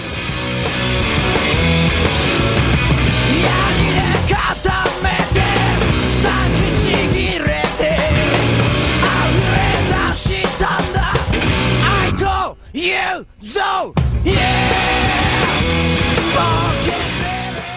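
A loud, driving garage punk rock song with dense distorted guitars, pounding drums and shouted vocals, briefly cutting out in a couple of sharp stops near the end before crashing back in.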